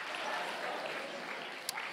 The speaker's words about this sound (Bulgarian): Викай като че вярваш. Пипни чакай да му кажи, пляскам, защото съм жив.